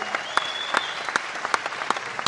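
An audience claps steadily for a mentor, many hands producing a dense patter of sharp claps with a few louder accents, sustained throughout with no voices.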